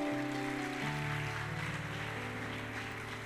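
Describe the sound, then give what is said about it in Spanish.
A crowd claps their hands in praise to the Master, a dense, steady wash of applause that holds at a constant level, with sustained musical tones running underneath. “Dale palmas de alabanza al maestro.”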